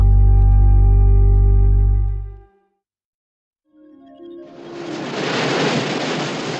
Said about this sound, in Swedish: At first it's hard to make out. Vågor mot en strand.